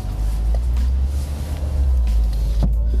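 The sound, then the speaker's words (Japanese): Steady low engine and road rumble inside a moving car, car No. 1, a muted, even drone with little other noise and a faint brief knock near the end. “1号車で来ると音は静かでですね音取っててもあんまりこう雑音入らないですね”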